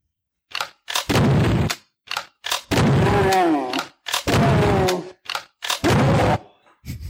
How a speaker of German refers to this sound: Und äh, das hatte allerdings 2016 ein Remake und es gibt in beiden Spielen eine ähm, Schrotflinte als Waffe und die macht das war richtig. Richtig, wir sind, wir sind bei Dune und wir hören uns mal die Shotgun aus dem Jahr 1994 an.